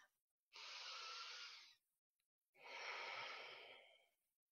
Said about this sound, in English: This is just you stepping back and taking a breath. And this is why this is important. So when you take a deep breath,